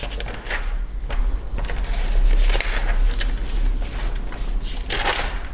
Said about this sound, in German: wir, wir, wir, hören hier live, wie, wie jemand in der Zeitung blättert.